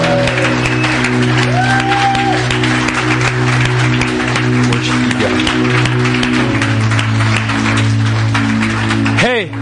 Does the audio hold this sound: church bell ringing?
no